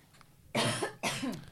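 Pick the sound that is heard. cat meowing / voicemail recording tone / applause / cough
cough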